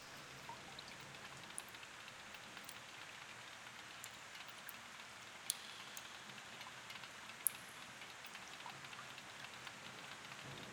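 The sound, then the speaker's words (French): Raindrops patter against the window panes of a dining room as a storm approaches, in a steady, dense hiss, with a few sharper individual taps standing out now and then. No voices, just continuous rainfall. “J'entends encore les gouttes frapper les vitres de la salle à manger.”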